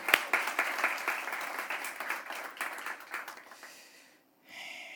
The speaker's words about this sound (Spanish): Un aplauso. A las madres, eso.